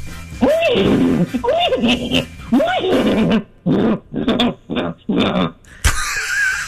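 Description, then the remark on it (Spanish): A person imitates a horse's whinny, with a series of rising, quavering vocal bursts followed by choppy, rhythmic snorting sounds, loud, ending with a brief noisy breath. “voy a imitar el, el caballo ahora mismo.”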